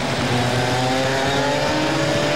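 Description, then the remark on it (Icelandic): A racing car engine drones loudly and steadily as the car races in the rain, its layered tones holding level over a constant hissing wash of wet spray, with no voices present. “Vatnið hefur eh, engin áhrif á kveikikerfið þessara bíla en eh, getur hins vegar valdið því að lofthreynsarinn stíplast”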